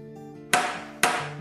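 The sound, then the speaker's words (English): A door knocker strikes twice, about half a second apart, each blow loud and sharp with a ringing decay, over a soft, steady tonal hum. “The knocker was still echoing in her sleepy mind.”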